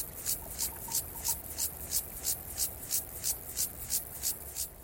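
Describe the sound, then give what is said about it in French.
A grasshopper's slowed song at the end of the day: a steady series of raspy, scraping chirps repeating about three times a second, fairly soft over a faint background hiss, with no one speaking. The song's speed changes with temperature, fast when it is very hot. “son champ euh, évolue en fonction de la température. Comme beaucoup de criquets d'ailleurs, comme beaucoup de, comme beaucoup d'orthoptères, de criquets, de sauterelles.”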